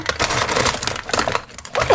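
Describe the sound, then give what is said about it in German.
Someone rummages through a drawer holding a USB stick and its cap, a busy run of small clicks, clatters and rattling objects being shifted about, fairly loud and continuous with no talking. “Okay, ich krieg jetzt ein bisschen ja? mit meiner Schublade krame.”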